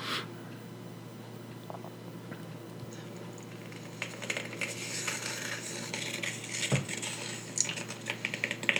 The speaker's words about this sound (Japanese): ただこしょこしょ声で喋って指で何かを叩いてる音をマイクに録音してるだけの音コルクボードかなこれコルクかな爪でね